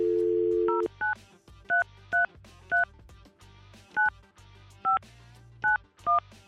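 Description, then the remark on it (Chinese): A short steady dial tone, then nine crisp touch-tone beeps as a phone number is dialed on a radio call-in show taking its next call, each a brief two-note chirp at an uneven pace, with a faint low hum beneath. “继续来卡电话，来喽。”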